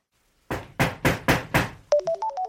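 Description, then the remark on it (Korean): Five loud, evenly spaced knocks on a front door, followed right after by a mobile phone's bright, beeping ringtone melody starting up, both sounding as someone puts on shoes at the entrance. No voices. “신발을 신는 순간 핸드폰과 현관문 노크 소리가 동시에 울린다.”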